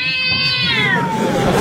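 A cat lets out one long, loud meow that slides downward in pitch, a slightly whiny, drawn-out cry over a faint background hiss, with no talking.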